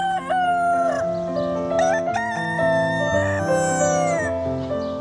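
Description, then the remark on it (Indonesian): A rooster crows loudly in the morning, its long drawn-out call rising and falling over a steady, sustained tonal background that plays throughout. “Di suatu pagi, ayam jago mulai bersuara.”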